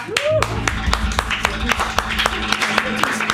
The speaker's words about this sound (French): Alors, hein ah, attendez, euh, moi je vais faire les applaudissements. Voilà.